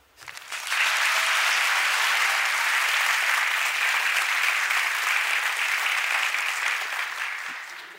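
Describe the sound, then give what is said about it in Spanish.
Sustained applause from an audience after a recited décima poem, starting after a brief moment and holding steady and loud as a dense wash of clapping for several seconds, easing slightly toward the end. “Yo también le aplaudiría a Vicente Espinel porque 426 años y sigue igualita en todos lados.”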